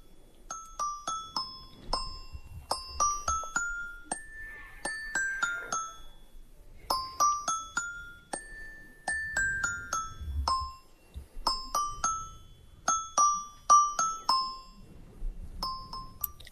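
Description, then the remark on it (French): A tinkling music-box style melody of bright chiming notes from a squeezed blue plush rabbit toy plays steadily in repeating phrases, clear, with a faint low rumble beneath. “Je serrais mon lapin bleu pour écouter la mélodie de mon enfance, me donnant un peu l'impression d'être près d'elle.”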